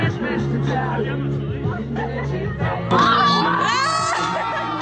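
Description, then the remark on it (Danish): A large crowd of about 4,500 final-year upper-secondary students cheers and shouts, celebrating their last school day before study leave, recorded in Instagram videos: a dense continuous roar of voices with excited whoops and screams rising sharply toward the end, loud. “hvor 4 500 3.G'ere i onsdags fejrede sidste skoledag, øh, ja, inden læseferien”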